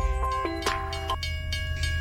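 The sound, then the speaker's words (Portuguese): A train arrives with a steady low rumbling roar, sustained horn-like tones and short hissing bursts over the top, filling the whole moment without any voices. “Lá vem ele! O trem já vem chegando!”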